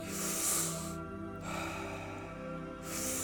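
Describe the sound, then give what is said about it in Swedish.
Deep breaths drawn in and pushed out during a guided breathing exercise, a loud airy rush, a pause, then another long breath, steady and rhythmic with no talking. “Fullt fokus. Djupa andetag.”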